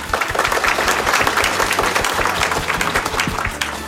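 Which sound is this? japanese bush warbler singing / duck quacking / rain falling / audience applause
audience applause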